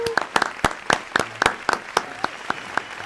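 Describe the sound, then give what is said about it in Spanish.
Applause from a small group, a steady run of sharp, bright claps with a few standing out louder than the rest, continuing evenly for a few seconds with no voices over it. “Aplaudir, aplaudir.”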